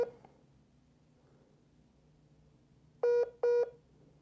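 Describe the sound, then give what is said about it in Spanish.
Two short, loud electronic keypad tones sound in quick succession near the end as a phone number is dialed, after a few seconds of quiet low background hum. “acabo de poner ya el número.”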